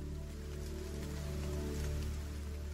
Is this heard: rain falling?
yes